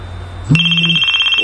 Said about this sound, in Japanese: おーっと、10時にセットしてた目覚ましが、なんて言うんですかね、これ。ホテルのチェックアウトが11時やから10時に目覚ましをかけるというね。